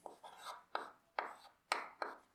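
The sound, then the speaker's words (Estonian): Scratchy strokes of pens as students scribble notes on paper during a theology lecture, a quick series of about five rasping bursts with sharp starts, with no voices present. “no nüüd te püüate kribada, eks ole, praegult seda kõike.”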